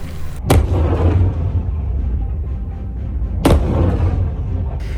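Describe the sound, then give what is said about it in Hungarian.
Two loud, sharp blasts about three seconds apart, each from a missile launch or explosion of missiles fired by China toward Taiwan that struck the sea, trailing into a heavy, continuous low rumble with no voices. “Ezek a rakéták csak a tengerbe csapódtak be. Kína lőtte ki őket Tajvan irányába, egyelőre elrettentésül.”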